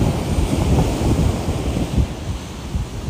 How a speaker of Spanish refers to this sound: Hoy nuevamente les vengo a hablar desde México, desde la playa, escuchen el mar, escuchen el viento.